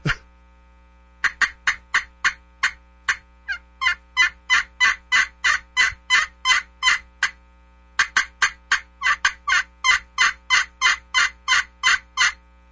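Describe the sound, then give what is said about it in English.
A turkey call, held steady without being moved around, produces a loud gobbling: long runs of rapid, evenly spaced rattling yelps, broken by a brief pause before another burst. No one speaks. “You know, the best part about it is, is he's not moving it all around. I mean, when you, when you go to those turkey call”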